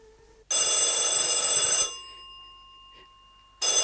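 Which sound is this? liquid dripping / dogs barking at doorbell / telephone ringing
telephone ringing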